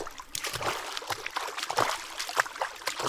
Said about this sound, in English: Drew took off his shoes and socks once again and began wading across it.